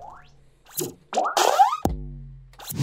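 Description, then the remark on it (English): Part of an electronic pop track: bouncy, rubbery synth boings and pitch-bending squelches, then a deep buzzing bass note that holds and fades, all loud with no voices. “So, shall we throw to our first song?”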